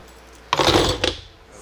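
beer bottle being opened

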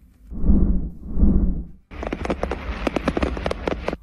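fireworks exploding

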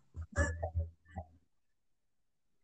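cats fighting

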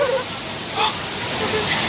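rain falling

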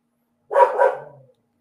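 dog barking

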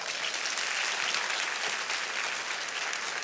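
audience applauding

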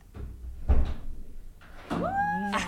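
door being opened

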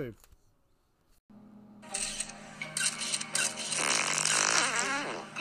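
fart

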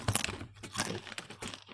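crunching potato chips

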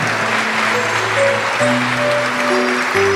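audience applauding

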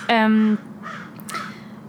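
bird calling

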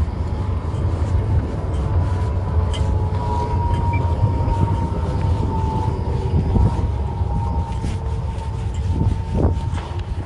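tram passing by

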